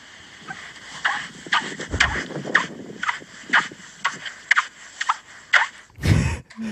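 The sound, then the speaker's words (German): A steady run of footsteps crunching and squeaking in dry beach sand, about two steps per second, with a faint wind rumble and a louder scuffing step near the end; the squeak comes from the air between the sand grains as the feet step in. “Und da ist tatsächlich so, haben wir natürlich dann recherchiert, wieso macht der da so Geräusche. Ähm, dass wenn die Füße da reintreten, die Luft, die zwischen den Sandkörnern ist”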